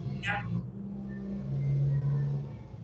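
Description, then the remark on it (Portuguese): A car's steady low engine rumble, like idling or passing, with a deeper humming tone swelling in the middle; a brief higher hiss near the start. “Que barulho é esse? É carro, é?”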